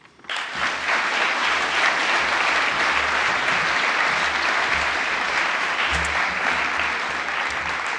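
A crowd breaks into applause, a dense, steady wash of many hands clapping that starts abruptly and holds at an even, loud level for several seconds with no voices over it.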